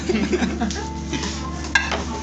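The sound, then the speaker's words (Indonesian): Crinkly rustling of plastic, handled in short irregular bursts with one sharper crackle near the end, over a low steady background hum. “Oh bunyi plastik tuh kedengeran.”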